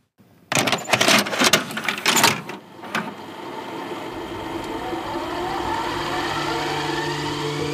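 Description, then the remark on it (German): Several sharp plastic clicks and clunks as cassette tape number 6 is inserted into a player, followed by a steady mechanical whir as the deck's motor starts running. No one speaks. “Wir legen die Kassette Nummer 6 ein.”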